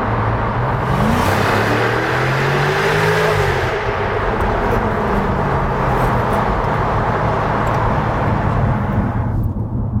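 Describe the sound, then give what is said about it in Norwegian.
A loud V8 car engine revs up with rising and falling pitch sweeps over a deep, continuous rumble, filling the whole recording with no voices. “Et siste V8-hurra!”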